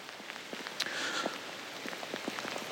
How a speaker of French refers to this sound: Putain, l'eau, j'arrête de vous saouler avec ça, mais sachez, sachez que là, putain, qu'est-ce qu'il faut, faut pas pour faire un podcast pour les Josianes C'est terrible là. La, la pluie tropicale, c'est magnifique